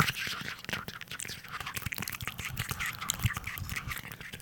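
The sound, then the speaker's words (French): A voice imitates the rustle of leaves falling in the trees of a forest with a steady, breathy, scratchy whisper that crackles unevenly for a few seconds, fairly soft, with no words spoken. “Optez pour le, le bruit des feuilles qui tombent dans les arbres, dans la forêt.”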